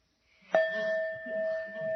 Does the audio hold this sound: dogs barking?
no